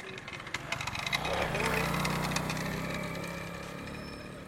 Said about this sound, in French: Parmi ces conducteurs de KTM, Trois d'entre eux ont bien voulu faire parler leur monture. Écoutons la moto de Pape raconter sa journée dans les rues de Kaolac.